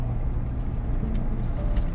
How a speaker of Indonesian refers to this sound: Ini suara uh, lumayan berisik Karena podcast ini direkam Di dalam mobil ya